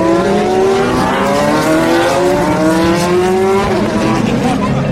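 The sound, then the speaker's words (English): Several Porsche 911 and Ferrari race car engines rev loudly and continuously as the cars go through the Dunlop Bridge at Le Mans in daylight, their pitch climbing and overlapping as they pass, with a high, rasping whine over a deep rumble. “Isn't that lovely, the sound of the 911s and the Ferraris revving up as they go through the Dunlop Bridge.”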